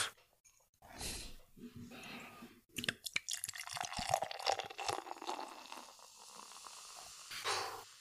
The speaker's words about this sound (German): Da wird aber auch eingeschenkt, ne? ja, das war jetzt für den Sound extra so ein bisschen von oben herab.